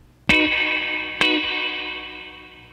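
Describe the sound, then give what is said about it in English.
Two sharp plucked guitar hits about a second apart, each blooming into a long, shimmering spring-reverb wash that lingers and slowly fades, with no voices; a guitar played through a little '63 Fender tube reverb tank with a little compression. “It sounds like a, the little '63 Fender, tube tank, uh, reverb tank.”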